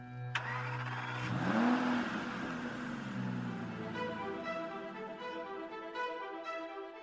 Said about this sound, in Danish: Hold fast for her kommer lyden af en lynhurtig bil.